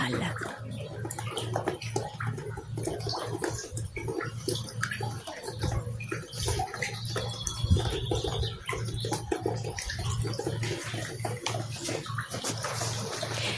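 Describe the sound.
Water drips and splashes steadily in a dense, continuous patter of many small drops from a moving art installation of water drips and plant structures, over a low steady hum, with faint murmuring voices in the background.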